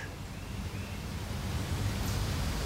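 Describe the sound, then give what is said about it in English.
A steady, enveloping hiss of ocean surf rolls on without pause, a soft continuous wash of waves with no voices and no distinct crashes standing out. “The sounds of the ocean bring you peace.”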